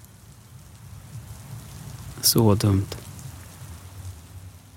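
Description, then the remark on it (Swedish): Steady rain falls at a funeral at a small chapel, pattering in the background throughout, a soft continuous hiss, while a voice briefly speaks a short phrase in the middle. “Vi var i ett litet kapell. Det regnade.”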